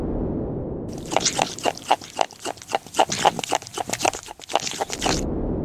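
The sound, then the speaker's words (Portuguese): A hyrax clicks its teeth in a rapid, uneven run of sharp, crunchy clicks, like steady chewing, lasting about four seconds over a soft hiss, with no talking. “parece o bichinho que tá mastigando alguma coisa porque ele bate os dentes, ele move os dentes, assim, tá?”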